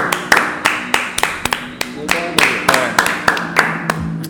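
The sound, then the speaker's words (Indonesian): Steady hand clapping, about fourteen sharp claps at a brisk, even rhythm, with faint chatter and laughter underneath. “tepuk tangan dulu”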